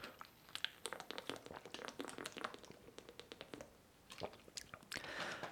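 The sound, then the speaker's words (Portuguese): Someone drinks water from a plastic bottle, with a quick run of crinkles, clicks and gulping sounds over a few seconds and no talking. “E já tenho outra coisa para falar de marcas, deixem-me só beber água e contar umas cenas engraçadas da, da semana.”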